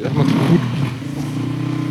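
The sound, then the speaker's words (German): A motorcycle engine roars loudly, its pitch rising and wavering as it revs, then settles into a steady, droning rumble as the bike moves on, on Good Friday. “Muss es sein, am Karfreitag, Motorradfahren die manche Leute, ne, die denken sich, die denken sich einfach nichts, ne?”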